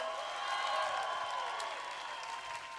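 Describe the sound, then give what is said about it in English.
An audience claps for the Lord steadily for a few seconds, a dense wash of clapping blended with sustained tonal music underneath, holding an even, moderate loudness throughout. “Somebody give the Lord a clap because you're going to get a break.”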